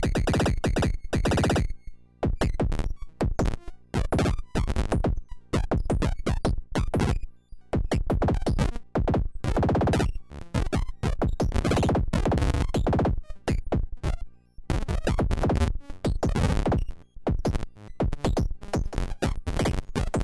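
A harsh, gritty bitcrushed digital synth tone chops and stutters in irregular bursts, its sample rate modulated randomly by a sample and hold from the Pico RND, so the crunchy texture lurches between grainier and smoother settings. Loud and continuous, with no voices.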